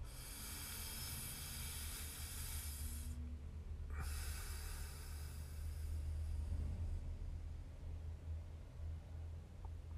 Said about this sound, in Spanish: Respiramos profundo. Sentimos la respiración sentimos el aire frío que entra por la nariz.